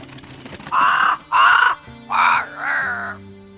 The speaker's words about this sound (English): Am I to assume by the midnight plumage, a raven sent by the King of Darkness himself?